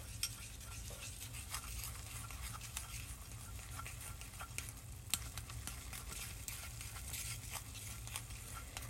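Continuous sticky stirring of natto for natto rice, a steady fizzing, crackling patter with small wet clicks throughout, no voices, only a low hum underneath.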